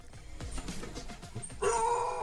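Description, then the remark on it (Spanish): A dog barks in short, rough bursts, ending in a louder, drawn-out yelping bark, with no talking. “si dicen que vienen de autos y más, les dan más ladridos”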